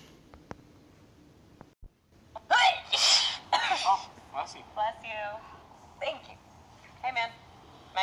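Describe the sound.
After a few quiet seconds with faint clicks, a loud, sharp sneeze bursts out close by. Voices then start talking.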